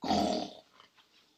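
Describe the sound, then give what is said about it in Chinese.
A single short burst of low, rough purring from six kittens rumbles loudly for about half a second, then quickly fades to near silence. “六只猫咪仔呼噜噜。”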